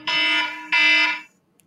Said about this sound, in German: Ja! Pünktlich zum Wecker.